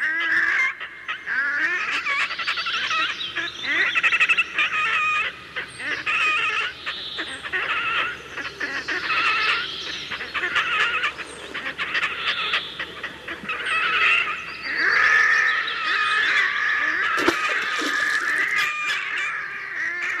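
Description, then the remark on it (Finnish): Red-necked grebes call loudly and continuously over an inland lake, their harsh, braying, wailing cries overlapping from several birds, with no talking. “siis taustalla härkälinnut mylvii”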